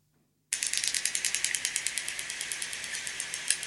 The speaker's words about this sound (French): Globicéphale. Hmm. globicéphale. la bonne réponse à ma gauche, c'est effectivement le globicéphale. Globicéphale noir.